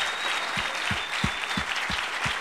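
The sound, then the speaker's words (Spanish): A church audience applauds for the Lord in a dense, steady wash of clapping, with a regular low thump pulsing underneath about three times a second. No one speaks over it. “Démosle un aplauso ahora al Señor.”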